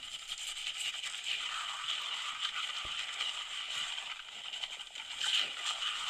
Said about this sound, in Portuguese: Para começar, está a pôr uma quantidade absurda de shampoo na cabeça do moço. Logo aí. Ai. Porra! Está tá a lavar a cabeça do moço ou está a escovar algum cavalo? Juro, olha, isso é muita agressividade para lavar uma cabeça.